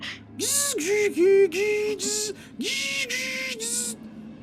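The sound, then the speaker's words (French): A voice imitates the screeching handshake of a dial-up modem, the noise heard when someone went on the Internet while someone else was on the phone: warbling pitched tones in short rhythmic bursts, mixed with harsh hissing static, fairly loud, for about four seconds. “puis vous entendez puis le bruit là, caractéristique de quand quelqu'un allait sur Internet, puis qu'il y avait quelqu'un au téléphone.”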